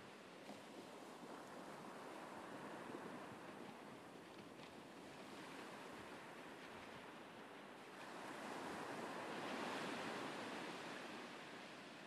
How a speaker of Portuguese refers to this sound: Tá, eu vou só testar. Barulhos que eu gosto, praia.